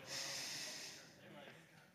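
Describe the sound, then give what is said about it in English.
A pickleball player takes one long, deep breath in through the nose, an airy hiss that swells quickly and then gradually fades over about two seconds. “And one thing you don't see a lot is, is the breathing the in through the nose,”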